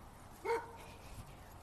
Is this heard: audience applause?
no